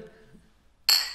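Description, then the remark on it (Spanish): A single bright clink of glasses striking together in a toast of "salud", sharp and ringing with a short shimmering decay, following a brief stretch of quiet murmured voices. “Bueno, salud. como salud.”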